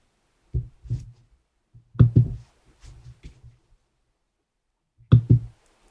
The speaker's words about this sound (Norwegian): Hvis du hører litt sånn klikking, så er det noen som har funnet ut at de skal jo drive litt gjøn på meg. gjøn med meg på datamaskinen.